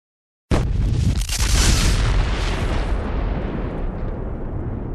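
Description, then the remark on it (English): A sudden, loud explosion detonated in a building's hallway bursts in after a brief silence, followed by a long, rumbling, crashing roar that sustains and slowly fades, with no voices present. “You hear a rending crash, an explosion that ripples out.”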